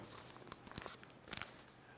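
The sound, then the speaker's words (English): Paper crinkles and crackles in a few short, irregular bursts as a $20 bill is crumpled in the hand; fairly quiet, with no talking. “Has this crumpled up bill”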